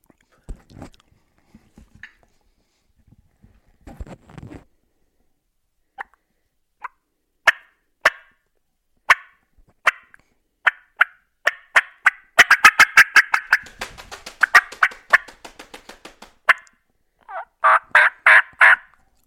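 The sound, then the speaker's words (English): A turkey hen's fly-down cackle made on a mouth call, imitating a hen flying down and hitting the ground: scattered sharp clucks speed up into a fast, irregular burst of cackling, then end with a few loud yelps, clear with no talking. “now you're actually laying the fly down cackle on him”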